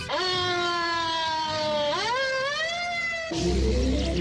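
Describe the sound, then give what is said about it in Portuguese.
A single loud wailing ambulance siren tone slides slowly downward, then swoops back up before cutting off abruptly into a brief burst of rough, noisy sound. “Ambulância do ouvinte das outras rádios.”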